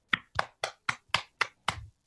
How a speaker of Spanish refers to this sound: un fuerte aplauso. Gracias, gracias.